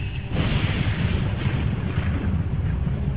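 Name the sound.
thunder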